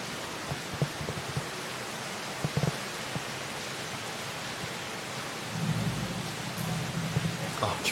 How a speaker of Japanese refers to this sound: 結構ゴロゴロ言っててどうだろう聞こえました